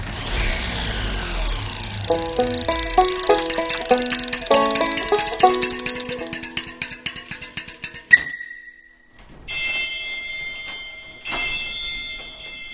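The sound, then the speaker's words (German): An old school bell, about 150 years old, is rung in a museum: a sharp metallic strike and a lingering tone, then loud bursts of bright, clangy ringing follow after a stretch of busy tonal sounds. “So klingt es, wenn Thomas Töpfer die Schulklingel läutet. Eine echt alte.”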